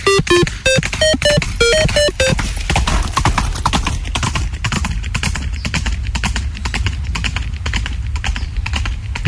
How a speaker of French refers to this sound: chevaux par des chevaux par milliers qui galopent jetés, Des chevaux par milliers qui ramènent leurs cavalier. Des chevaux par milliers dans les ravins, dans les fossés.